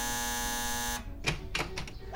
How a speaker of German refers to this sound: Was? Ja, nicht schon wieder. Jetzt klingelt's bei mir. Hat man denn nie seine Ruhe?